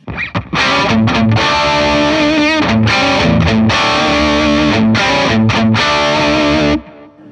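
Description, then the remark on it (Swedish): A heavily distorted electric guitar, played through a distortion pedal and amplifier, repeats the same riff to demonstrate the treble and presence settings: a loud, chugging riff with rhythmic pauses between chord stabs, running steadily for about six seconds before cutting off abruptly. “om du vrider lite grann på discount och pressen så man kan höra skillnad så, så ja. spelar jag samma riff här.”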